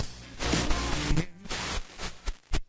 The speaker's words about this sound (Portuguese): Desculpem a interferência da Rádio Uruguaia mais uma vez.